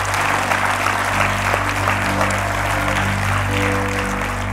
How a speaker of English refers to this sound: If you're with me this morning, why don't you give Jesus one big round of applause? Amen. Hallelujah. Hallelujah.